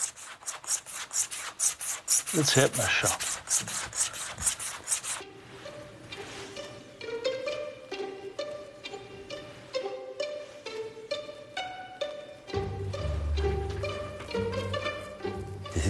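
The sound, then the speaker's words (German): Rhythmic rubbing strokes of a razor blade drawn back and forth over a Russia leather (Juchten) strop, fairly loud, repeating steadily with a soft scraping texture; a brief voice speaks once. “Streich, Streich, Streich, Streich. Das haben wir Juchten. da? Juchten. Wenn das Messer schreit, dann weiß ich, dass es scharf ist.”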